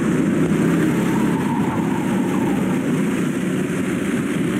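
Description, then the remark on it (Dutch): Outdoor go-karts roar past in a steady, loud engine drone, with a constant hiss of rain and a faint squeal of tyres mixed in. No one speaks. “je hoort regen op je en piepende bandjes.”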